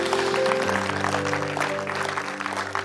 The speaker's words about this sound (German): Lass uns den Leuten, die jetzt gerade gebetet haben, mal einen Applaus geben.